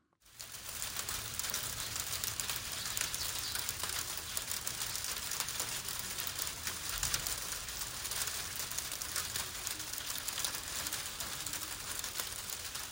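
Small hail pellets pelting down in Kameyama, Mie Prefecture, Japan, in a dense, steady clatter of tiny impacts, a continuous crackling patter that holds at an even level throughout, with faint flustered sparrow calls and no human voices.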